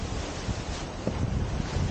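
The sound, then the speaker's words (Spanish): Wind roars steadily, with rain, and waves slap against a sailboat's hull during a regatta, a dense rushing wash with low buffeting thumps and a few sharper splashes, no voices. “Viene con todo. Lluvia, cachetada, viento.”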